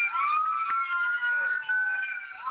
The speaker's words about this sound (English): I know y'all can hear the ambulance coming.